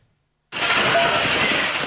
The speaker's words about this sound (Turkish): Eğitim reformuna karşı çıkan öğretmenler Guerrero eyaletini birbirine kattı. Göstericilerin hedefinde iktidar ve muhalefet partilerinin binalarıyla Eğitim Bakanlığı'nın şubesi vardı. Beş binanın camları kırıldı.